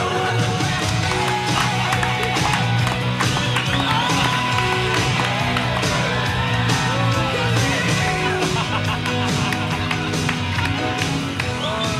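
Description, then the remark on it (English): An audience applauds and cheers a panel on stage at an Australian surfing event, steadily for about twelve seconds, a dense, loud wash of clapping with scattered shouts and voices mixed throughout. “What about a round of applause for this panel?”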